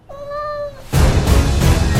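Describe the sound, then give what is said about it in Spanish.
A single drawn-out cat meow, clear and fairly loud, sliding slightly downward in pitch, followed abruptly by a burst of loud, dense rushing noise. “¿Por qué tienes un gato?”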